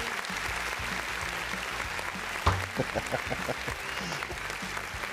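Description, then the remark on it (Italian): Steady audience applause fills the whole stretch, a dense even patter of many hands clapping, with a brief louder burst and a few voices calling out partway through. “Eccoci qua, allora qua, a proposito di questa ba- battuta, ci saranno 92 minuti di applausi.”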